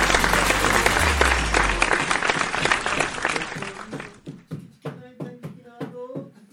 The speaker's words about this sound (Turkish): Alkış bana ya. Bayağı okudum yani.